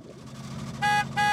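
A car horn gives two short, loud honks in quick succession over the low rumble of an idling engine, as a customer arriving in his car signals to a tamale seller without stopping the motor; no voices present.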